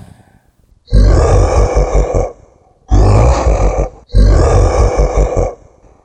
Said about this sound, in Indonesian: Suara seperti teriakan dan orang marah-marah nggak jelas mulai terdengar.